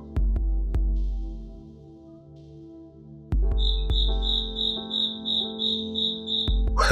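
A bell cricket (suzumushi) chirps in a steady string of high, bright, ringing pulses, clear, over a low background hum with a few soft thumps; the cricket is within sight of the microphone.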